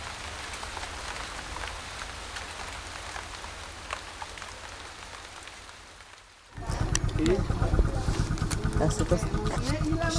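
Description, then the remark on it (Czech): Steady rain patters down in a dense, even hiss for about six seconds, then the scene cuts abruptly to something louder where a person is talking. “O den později déšť utichl.”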